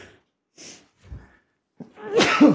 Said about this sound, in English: Bless you.